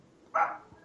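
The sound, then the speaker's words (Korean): A single sharp dog bark rings out, fairly loud, then trails off into quiet. “내일 게 없어서 지금 개 짓고 있네.”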